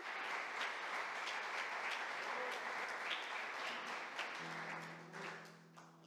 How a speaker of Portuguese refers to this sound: Aplauda o Senhor, porque Ele está aqui.